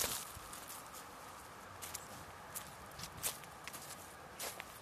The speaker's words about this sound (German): Garten. Blätter, über die ich laufe.